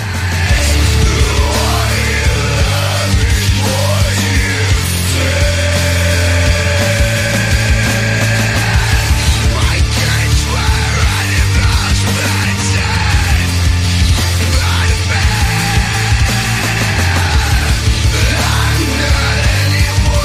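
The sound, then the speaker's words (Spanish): A heavy metal record plays loudly and densely for the whole stretch, with distorted guitars, a pounding low end and a wailing lead line riding on top, with no talking over it. “están dando ganas de escuchar este disco sin tontos pisándolo. Venga, pónmelo un poco hasta que llegue el sol.”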